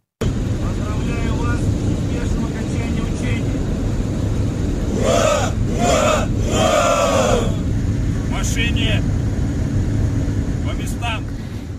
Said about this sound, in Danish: Ja, her i det her klip, der ses altså russiske soldater, der angiveligt er i gang med at køre kampvogne ombord på et tog mod øst.